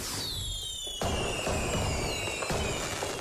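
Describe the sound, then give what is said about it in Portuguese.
Fireworks burst in a few sharp, booming cracks about a second apart, with high whistling tones streaking overhead and a crackling rumble filling the gaps, loud. “Nesta altura do ano, com este calor, é a melhor maneira de ouvir fogo de artifício.”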